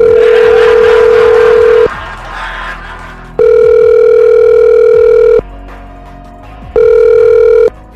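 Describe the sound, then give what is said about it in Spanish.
A telephone ringback tone sounds as a call is dialed, in three long, loud steady bursts separated by pauses, with faint background noise between rings and no one speaking. “Vamos a marcarle.”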